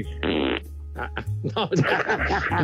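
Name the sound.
fart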